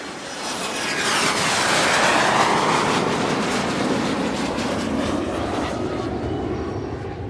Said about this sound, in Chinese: 我们坐飞机到捷克来玩了。